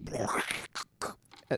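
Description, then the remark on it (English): A voice imitates the thin, tinny sound of earbuds used while running, with hissy, crackly mouth noises: one long burst followed by three short bursts, fairly quiet. “They sound like like you are shoving two crystals into your ears, oh, and uh, they're, so they're sound, not great.”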